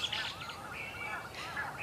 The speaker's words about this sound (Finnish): Tässä on punakylki. Siinä on punakylki nyt äänessä. Tältä se kuulosti.